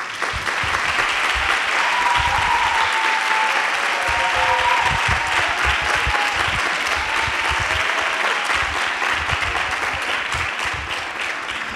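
Loud, sustained applause from a large audience on the show El Hombre Luna, welcoming one of the leading bands of the island of La Palma, a dense steady wash of clapping lasting the whole stretch, with faint whoops and cheers rising briefly through it.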